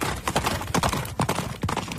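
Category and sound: sound effect, horse hooves clip-clopping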